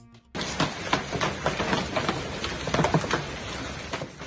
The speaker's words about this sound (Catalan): Així pedregava a la canyada paterna